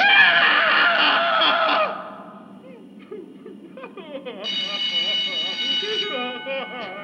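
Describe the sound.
A school end-of-break bell rings loudly with a harsh, buzzing tone for about two seconds, then stops. Children's voices chatter and call out afterward, with a steady high-pitched ringing tone over them.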